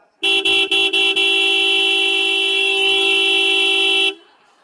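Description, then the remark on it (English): A car horn blares loudly, opening with a few rapid stuttering taps before holding one long, unbroken, aggressive blast for nearly four seconds, then cutting off abruptly. “the highest level of intensity where you go ballistic”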